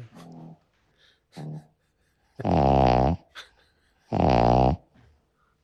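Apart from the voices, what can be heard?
dog snoring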